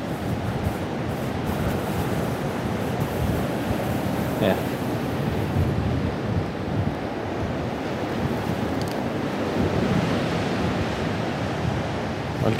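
A dense, continuous roar of white, foaming surf pounding onto a beach, loud throughout, with wind buffeting the microphone and no distinct individual wave breaks standing out.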